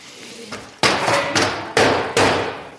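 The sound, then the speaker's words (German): Dried mud is knocked off a gravel bike in a series of sharp, hard knocks: one lighter tap, then four loud, evenly spaced whacks, each with a brief ringing decay and no voices. “Ich klopfe das mal gerade aus, ne? Den Schlamm.”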